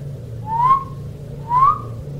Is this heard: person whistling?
yes